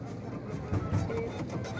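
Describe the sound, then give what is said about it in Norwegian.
A ticket machine at a cinema in Oslo, Norway whirs and chatters as it prints cinema tickets, a steady mechanical buzz with a couple of louder pulses, with no talking. “skriver ut kinobilletter på Saga kino i Oslo”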